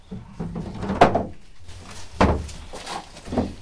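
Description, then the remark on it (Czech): A darkened door at a wildlife rescue station in Makov is handled and opened, with a few sharp wooden clunks and knocks spaced about a second apart amid faint rustling; behind it a young eagle is kept calm before release. “Ty dveře jsou zatemněné, aby on byl v klidu.”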